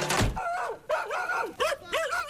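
A dog barks four times in quick succession, fairly loud, each bark rising and falling in pitch, with a dull thump at the very start and no talking.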